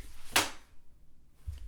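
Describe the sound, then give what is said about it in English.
A chair gives one sharp, loud crack, a brief woody snap with a faint low knock near the end and no talking. “That was my chair that cracked.”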